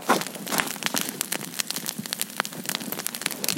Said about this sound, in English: Woo, we're in New Hampshire, and it's great. And we're right next to a bonfire right across from my, our parents' house. Listen to that bonfire.